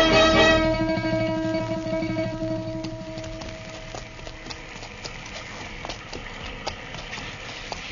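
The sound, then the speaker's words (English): Horse hooves clip-clop in a steady walking rhythm as riders travel on the frontier in heavy rain, over a low rumbling background, with a sustained tonal drone fading out over the first few seconds; no one speaks. “Come on, Chester, let's find our horses.”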